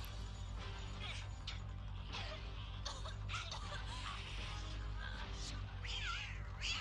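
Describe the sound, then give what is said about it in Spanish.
A cat in a film scene, defending a girl, meows and yowls in several drawn-out, pitch-sliding cries over a constant low rumble, with scattered clattering and busy background noise filling the scene. “y aquí está el gato, ¿no? Es, es formidable cómo defiende ¿no? a la niña.”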